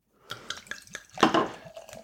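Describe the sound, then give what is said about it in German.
India Pale Ale of 6.8 percent glugs out of a bottle into a glass in a few quick rhythmic pulses, then runs into a fuller, foamy splashing pour. It is fairly clear, with no talking. “Gibst du mir da ein Glas, dann schütte ich oh, da ja. davon ein.”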